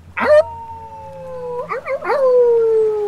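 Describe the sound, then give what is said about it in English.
A man, holding a death's head coin up against the moon, lets out a loud, drawn-out wolf-like howl, rising sharply, holding a long wavering note, breaking briefly, then trailing off in a second sustained, slowly falling cry. “He frames the death's head coin against the moon. He howls.”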